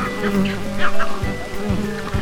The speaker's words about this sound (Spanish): Estoy en la isla nublar porque este mosquito es tres veces mi tamaño.